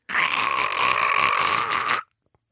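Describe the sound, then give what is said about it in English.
A person imitates a koala's grunting call: one continuous, raspy, snore-like rumble lasting about two seconds, loud, then abrupt silence. “Who's got a better koala you noise?”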